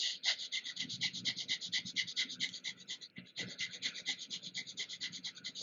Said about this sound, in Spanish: La intención es eh, inhalar y exhalar por tu nariz aproximadamente tres veces por segundo. O sea, es muy rápida la respiración, es como en este, este ritmo, mira, así.